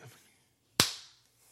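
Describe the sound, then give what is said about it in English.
A single sharp hand clap, made with the hands held like prayer hands in front of the face, rings out loudly after a short quiet stretch, its bright snap tailing off over a fraction of a second, with only a faint low hum around it. “clap again.”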